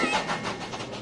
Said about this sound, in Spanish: Oh, veo que has encontrado esta estación de trenes. ¿Sabes? Pasan, cosas, muy, extrañas, aquí.